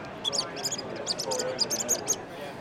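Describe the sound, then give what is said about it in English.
A small handheld Faulhaber predator call, from an Austrian company, squeals in a rapid series of about ten short, shrill, high-pitched squeaks imitating a distressed rodent, fairly loud over a low rumbling background. “Um, but this little call produces a very um, a real really pitchy, squeaky rodent type”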